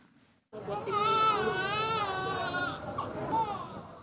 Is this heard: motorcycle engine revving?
no